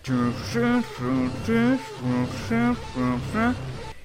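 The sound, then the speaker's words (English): A voice imitates the countdown clock sound effect from an entrance intro with about seven buzzy, pulsing bursts in a steady rhythm, fairly loud, with no spoken words. “Like with the first three versions, the graphics would be different, but the sound effect that the clock made was always the same.”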